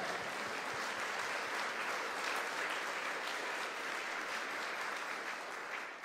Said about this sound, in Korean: 우리와 함께 하신 하나님께 감사와 찬양의 박수를 드립시다. 할렐루야.